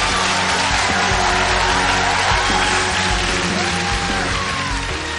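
Loud, sustained audience applause fills the whole stretch, a dense wash of clapping mixed with a few cheers and whoops from the crowd.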